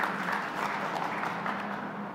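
An audience claps hands in a steady, dense wash of applause that holds at an even level for about two seconds, with no voices standing out.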